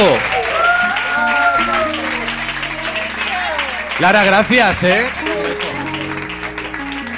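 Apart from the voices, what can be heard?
audience applause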